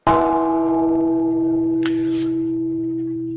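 A single strike of a bell ringing to wake sleepers rings out loud, its rich tones sustaining and slowly fading over several seconds, with a brief hiss of noise partway through. No one speaks.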